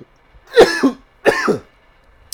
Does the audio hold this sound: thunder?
no